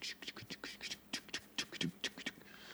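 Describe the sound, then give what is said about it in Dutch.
A voice mimics a steady ride-cymbal pattern with quick, breathy hissing syllables in an even, repeating rhythm, fairly quiet, for a few seconds, imitating the drummers in a musician's music who played almost like a metronome. “Maar als je de muziek van … gaat spelen, daar zaten altijd van die drummers bij die deden niks anders dan.”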